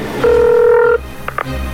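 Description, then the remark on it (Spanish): A telephone ringing tone of an incoming call sounds once as a steady electronic tone lasting under a second, followed by a couple of faint clicks and low background hum. “es Erasmo marcándome otra vez”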